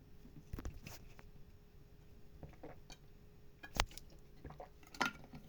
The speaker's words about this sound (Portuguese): mais uma água que eu vou tomar aqui para enrolar, para matar o tempo do seu podcast. Eu, eu podia ter tomado água antes de começar a gravar? Podia, mas eu preciso ter essas paradas, esses tempos técnicos no meio do podcast, cara.